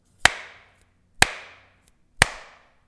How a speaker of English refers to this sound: uh, that we, well, either there were two pieces of styrofoam or there was one that we broke in half. But then we whacked the styrofoam together, which made a tremendous sound. Uh, in fact, I can play that for you. Here's here's what it sounded like.